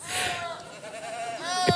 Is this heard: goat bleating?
yes